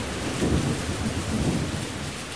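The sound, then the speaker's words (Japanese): A sudden passing rain shower pelts asphalt hard in a dense, steady hiss, with a low rumbling swell rising and easing beneath it. No voices are heard. “通り雨がやってきて激しくアスファルトを叩いた”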